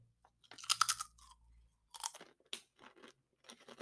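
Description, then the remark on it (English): Loud crunching of a crisp cinnamon chip, the first chip of the cinnamon crunch flavor: a sharp first bite followed by several irregular chewing crunches, with no talking. “We move to cinnamon crunch. I really like cinnamon, but again, bias aside. First chip. Let's dive into it.”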